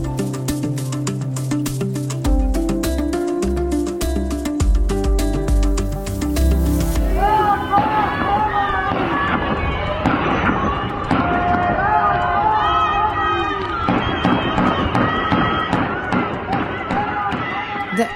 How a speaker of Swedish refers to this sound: ökända Evinfängelset i Irans huvudstad Teheran står i lågor och det hörs skottlossning. Det här hände på lördagskvällen